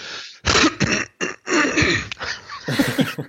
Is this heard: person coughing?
yes